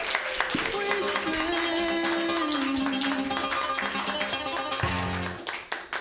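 An audience claps steadily, a dense crackling wash of applause mixed with loud walk-on music and held tones, lasting about five seconds before thinning out and fading.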